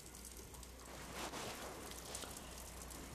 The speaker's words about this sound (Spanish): hoy quiero que escuches conmigo esta hermosa lluvia que se escucha al fondo.